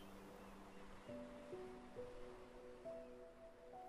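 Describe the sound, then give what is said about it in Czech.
Soft, steady sea waves wash onto the shore, a continuous gentle hiss beneath quiet sustained musical tones that shift every second or so. The surf stays low, with no voices. “nech se ukolébat mořskými vlnami”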